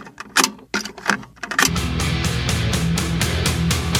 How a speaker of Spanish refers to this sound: tiene algunos temazos como …, ¿vale? Que voy a poner ahora nada más que un poquito